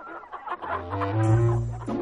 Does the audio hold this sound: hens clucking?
yes